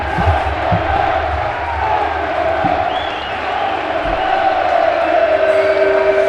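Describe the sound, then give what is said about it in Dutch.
A not very large crowd of football supporters in a stadium cheers and chants steadily, a dense wash of voices with a few sharper shouts rising above, sustained and fairly loud throughout. “Nou, de dus sfeer zit er goed in in ieder geval. Het zijn er niet superveel, het klinkt wel nog veel op de een of andere manier.”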